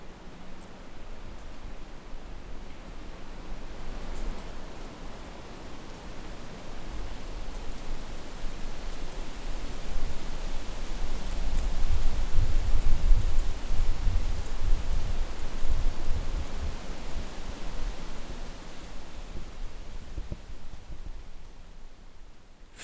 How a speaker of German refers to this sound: So empfindlich die Rotbuche gegen zu große Trockenheit und Staunässe ist, Wind verträgt sie gut so wird sie in vielen Gegenden Europas auch als Windschutz an den Westseiten der Häuser angepflanzt, wo das Rascheln ihrer Blätter zu hören ist